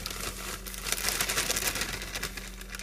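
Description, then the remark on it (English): Dry contents pour from a box into a bowl, a steady rustling hiss dotted with many tiny rattling ticks that carries on unbroken for a few seconds, with no one speaking. “Now we're pouring into bowl.”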